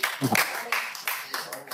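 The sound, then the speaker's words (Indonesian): A short burst of applause from a small group, scattered claps spread across the moment, with a brief voice speaking near the start. “Tepuk tangan untuk”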